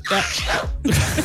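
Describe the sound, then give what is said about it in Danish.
A loud sneeze fit, with breathy voiced buildup followed by a sharp, noisy burst, repeating in quick succession. “Jeg er jo øh, multinyser, som I, som I ved.”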